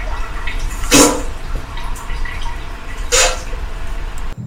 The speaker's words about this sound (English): wait for the running water sound. This clever machine has three distinct settings Babbling Brook, Ocean Waves, and Roaring River for those close calls.